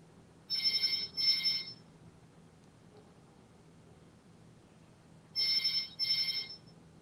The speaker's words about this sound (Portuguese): Ixi, meu telefone.